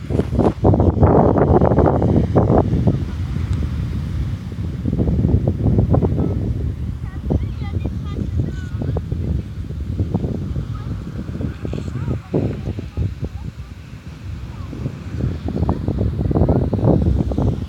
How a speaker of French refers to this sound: Alors je ne sais pas si vous avez entendu euh, l'océan. Moi je l'entends c'est super agréable. C'est très très très agréable d'entendre l'océan comme ça. Et je peux vous dire que ça apaise.